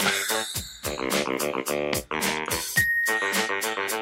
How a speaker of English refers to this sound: I love the bell.